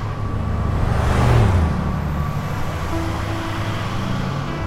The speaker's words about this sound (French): Puis, on aperçoit une voiture. Elle s'approche. Les voilà.